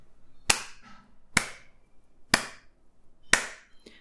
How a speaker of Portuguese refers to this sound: Não sei se o áudio ficou muito bom, mas batemos palmas com o mesmo ritmo quatro vezes.